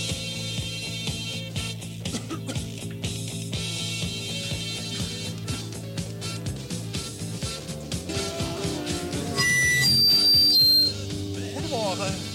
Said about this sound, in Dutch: En ondertussen draaien wij een grammofoonplaat.